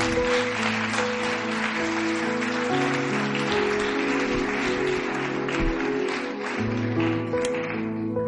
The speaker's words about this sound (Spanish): Dar un aplauso fuerte a Dios.